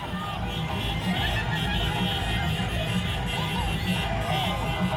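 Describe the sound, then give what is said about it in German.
Car horns honk repeatedly amid a dense street din in Qatar, with a crowd of voices cheering and chattering underneath as people celebrate; the sound is continuous and busy. “Wir hören hupende Autos, wir hören äh, mich ein bisschen giggeln, weil ich das äh, Handy bediene.”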